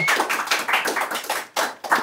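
Applause from a small group for a round of the game "Yo nunca, nunca": dense, crisp handclaps rattle steadily for two seconds, dropping out briefly twice before resuming. No one speaks over it.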